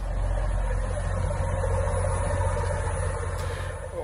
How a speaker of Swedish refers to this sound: Den gamla sexcylindriga Perkins-dieseln på 130 hästkrafter lyftes då ur båten och ersattes med en rad på fyra elmotorer på inalles 40 kilowatt. Och så här låter det alltså då man kör Night Train i sju knop med elmotorerna.